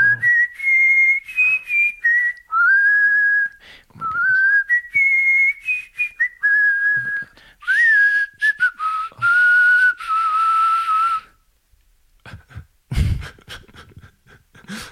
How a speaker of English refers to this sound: And I brought my my uh, my flute. Oh, you brought your flute. I did. Do you want to? I'm gonna play the flute.